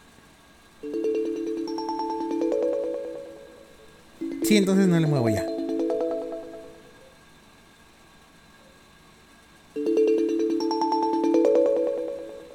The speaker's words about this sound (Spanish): Bueno, esta es la alarma. Ahora sí, esta sí está subiendo de volumen.